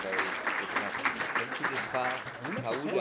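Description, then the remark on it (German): An audience in a hall applauds steadily after a passionate closing statement, a dense wash of many hands clapping at a constant, fairly loud level, with some voices rising through it toward the end. “dann verstehe ich den Applaus jetzt äh, so, dass es bestätigt, was ich vermutet hatte, dass Sie das auch so sehen”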